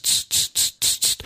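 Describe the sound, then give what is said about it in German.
A voice imitates a cicada's chirping with five quick, raspy hissing bursts in a steady rhythm, fairly loud, with no other sounds. “Das ist eine Zikade. Ich bin einer der besten Zikaden.”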